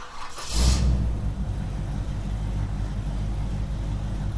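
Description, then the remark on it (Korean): A gasoline combustion-engine car passes by on a street, spewing acrid exhaust; its engine roars with a brief whooshing burst, then settles into a steady, deep rumble that continues loudly to the end, with no voices. “이 소리는 기후 위기를 심화시키는 내연기관차가 매캐한 매연을 뿜으며 지나가는 소리입니다.”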